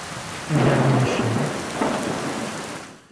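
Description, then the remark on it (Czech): A short thunderstorm sound-effect jingle introducing a regular quick-question segment: steady rain hiss with a loud roll of thunder that swells in, then a second rumble before it fades out. No voices. “takže je tady bleskovka”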